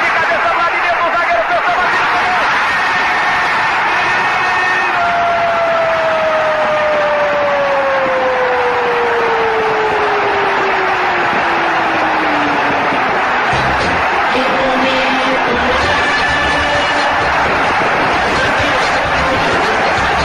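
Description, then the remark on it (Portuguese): A football stadium crowd of Corinthians fans roars after a headed goal by Basílio, a dense, continuous wall of cheering that holds loud for the whole stretch, with a few tonal horn-like notes sliding downward through it. “o grito do fundo do coração de um torcedor.”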